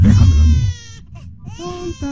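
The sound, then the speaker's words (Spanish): A baby cries in two wailing bursts with a short break between, the voice high and strained with stacked harmonics, loud over a low rumbling background at the start. It is the baby Roshan of the human tribe from a film. “bebé.”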